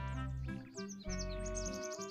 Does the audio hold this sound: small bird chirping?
yes